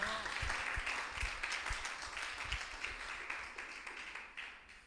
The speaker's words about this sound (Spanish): un aplauso a Cristo poderoso.